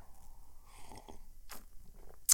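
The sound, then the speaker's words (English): A quiet sip of coffee: soft slurping and mouth sounds, a brief breathy swallow, then a short sharp click near the end, with no talking. “Hold on. Let me get a sip of my coffee.”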